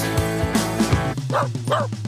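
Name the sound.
dog barking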